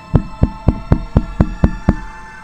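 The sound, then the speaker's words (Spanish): Eight hard, rapid knocks on a window, evenly spaced and loud, each a sharp rap with a brief ringing tail, with no voices. “La bruja de las agujas golpea con fuerza la ventana para entrar.”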